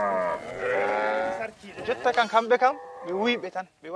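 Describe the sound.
A cow lets out a long, drawn-out low, loud and clear for about a second and a half, as cattle are given salt from a half-drum; then a person starts speaking over the quieter animal sounds.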